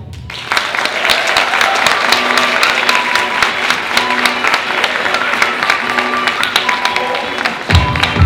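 An audience gives a warm round of applause to a speaker being introduced, many hands clapping in a dense, steady patter that holds at an even loudness for several seconds before tapering slightly at the end.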